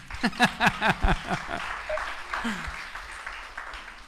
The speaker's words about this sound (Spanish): Miren, ¿quién le dio lugar en su casa a los animalitos? Un aplauso para los animalitos.